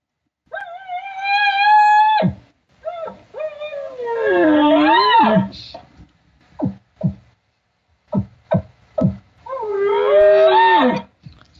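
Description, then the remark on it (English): Someone imitates elk cow calls: three long, whiny mews that slide up and down in pitch, separated by a string of short, sharp chirps, loud and with no talking. “Oh, but when you do it and you're throwing the cow sound in and you're trace, you, you're feeling your emotion for the situation you're in.”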